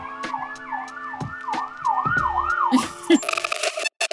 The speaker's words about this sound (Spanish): Disculpen la ambulancia.